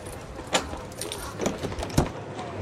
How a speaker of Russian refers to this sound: Двери были заперты. Он позвонил. Прошло несколько секунд в тягостном для него ожидании. Ключ загремел.